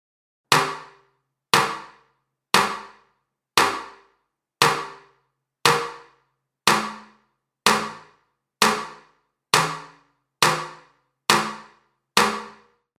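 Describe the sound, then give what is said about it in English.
Twelve sharp percussive hits land at a steady pace about a second apart, each ringing out in a short room reverb tail that fades before the next strike. No voices. “reverb, room.”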